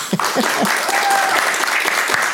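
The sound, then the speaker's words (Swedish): An audience bursts into steady applause after hearing a legend about the origin of the Cavallius family name, a dense, continuous clatter of many hands clapping at a fairly loud, even level throughout. “Det där förtjänar ju verkligen en stor applåd.”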